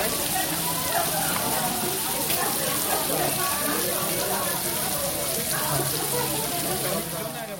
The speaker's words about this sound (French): Vous entendez le bruit de la pluie qui tombe, enfin de la viande qui grille. à quelques minutes de la station wang Wangshimli, vous trouverez donc la rue des restaurants de Kopchang du quartier.